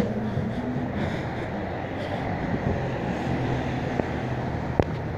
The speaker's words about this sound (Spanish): Ahora estoy corriendo, estoy cruzando una avenida. Todo el ruido que se oye pues es de la calle.